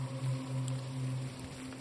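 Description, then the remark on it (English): Soft, steady patter of light, misty rain, a faint, even hiss of fine drops with no distinct splashes, over a low constant hum. “He was clenching his fist onto the knife as he spoke, and the rain, which had become a misty spray, collected in droplets that rolled down his white knuckles.”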